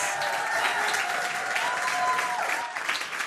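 Loud, sustained roaring applause from a large crowd in Mainz welcoming a performer, dense steady clapping filling the whole stretch with a few faint whistles or cheers rising above it.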